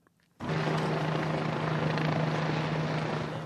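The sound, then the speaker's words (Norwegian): A helicopter hovers low over the UN headquarters in Manhattan, New York, its loud, steady rotor roar starting abruptly after a brief quiet moment and continuing without a break, with a sustained low engine hum. “Igjen henger helikopteret lavt over FN-hovedkvarteret på Manhattan”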